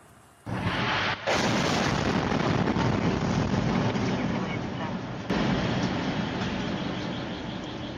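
A sudden, loud explosion from a Russian strike on a residential area about 140 km from Kyiv, filmed by a car's dashboard camera, bursts in after a quiet start, followed by a sustained roaring rumble and a second sharp jolt, overwhelming, with no clear talking.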